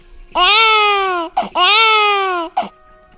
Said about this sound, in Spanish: tenemos un bebé que llora en alemán y otro en francés. Vamos a escuchar primero uno y luego el otro. Y a ver si sabéis en qué idioma llora cada bebé.